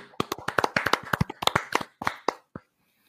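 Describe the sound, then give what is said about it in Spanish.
A short burst of applause for all the people who helped discover encephalitis, from a few pairs of hands: about twenty sharp, crisp claps in a quick, uneven patter that thins out and stops after a couple of seconds. “Mano, un aplauso para, para toda la gente que ayudó a que se descubra la encefalitis.”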